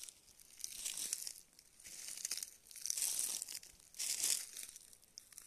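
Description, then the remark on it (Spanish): Dry, brownish-grey fallen leaves crunch and crinkle in repeated bursts, like slow footsteps or hands stirring through a leaf pile, with brief quieter pauses between each rustle. “Si pones atención lograrás ver algunas hojas flotando desde lo más alto de camino al suelo suavemente para regalarnos esta alfombra café grisácea estos sonidos deliciosos”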